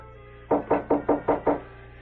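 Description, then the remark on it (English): Six quick, evenly spaced knocks on a door, fairly loud, with a steady low hum underneath and no voices. “Is someone knocking at the door?”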